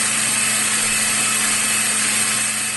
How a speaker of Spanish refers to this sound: Escuchen esto, ¿eh? Escuchen esto que traigo. Ya está preparada la licuadora, ¿eh?